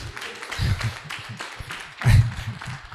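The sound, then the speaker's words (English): An audience claps steadily for a few seconds, a dense crackle of many hands with murmured voices underneath, swelling briefly louder toward the end before easing off. “You can clap.”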